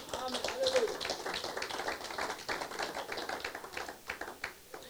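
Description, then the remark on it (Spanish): A crowd claps steadily for several seconds in applause for God during a Spanish-language sermon, a dense patter of overlapping hand claps, with voices faintly mixed in beneath the applause. “Dale un aplauso a Dios, amén.”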